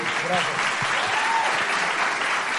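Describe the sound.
A crowd applauds in a dense, steady wash of clapping that stays fairly loud and even throughout, with a few faint voices mixed in underneath.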